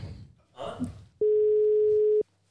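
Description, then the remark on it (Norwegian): A telephone ringing tone on a call that goes unanswered sounds once: a single steady, fairly loud one-second beep heard clearly over the line, with faint muffled noise before it and quiet after. “Personen du ringer svarer ikke.”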